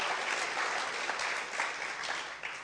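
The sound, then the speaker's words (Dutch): A steady burst of audience applause, dense clapping from many hands that holds at an even level throughout with no voices standing out. “Maar laten we een geweldig applaus geven aan”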